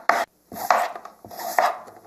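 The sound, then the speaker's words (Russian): A knife cuts pork belly into bite-size cubes of two to three centimetres on a board: about four crisp, rasping strokes with sharp starts and scraping tails, at an uneven pace. No voices. “Порежьте свиную грудинку на кусочки, как я их называю, на один укус, на кубики пара-тройка сантиметров.”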